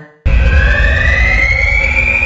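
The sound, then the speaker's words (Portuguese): A loud, piercing fire alarm tone blares continuously after a brief quiet start, its pitch rising slowly over a dense rumbling backdrop, with no voices. “Bom, Modena, toca um alarme aí bem alto, alarme de incêndio, daqueles que ninguém vai poder depois dizer que não ouviu.”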